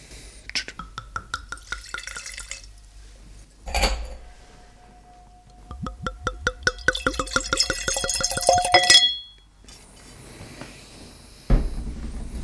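Glassy clinks and a short scraping pop as a wine bottle is opened, then a rapid series of gurgling, dripping pours of wine into a glass, with soft murmured voices.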